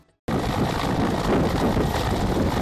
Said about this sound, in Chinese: 乌克兰空军的米二四武装直升机从一处秘密地点起飞，准备执行空中打击任务。